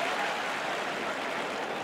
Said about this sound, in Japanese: 第一度流れる宝塚記念のファンファーレに大きな拍手が湧いた阪神競馬場です